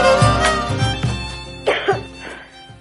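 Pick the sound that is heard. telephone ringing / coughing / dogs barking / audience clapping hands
coughing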